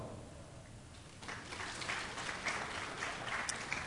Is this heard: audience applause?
yes